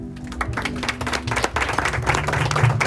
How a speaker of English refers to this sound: Amen. Yes. Clap for her.